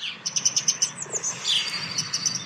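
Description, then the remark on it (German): A frog figure pressed against a wall gives off a quick run of high, thin, fairly clear chirps, followed by a longer squeaky whistle and a few softer chirps, with no one talking. “Das ist gerade der, der, der Frosch, der oben ist. Der wird gerade gegen die Wand was? gedrückt.”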